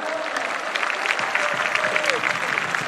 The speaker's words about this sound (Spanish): ¿Cuánto dicen amén, amado hermano? Dale un aplauso a Cristo, a su nombre, gloria.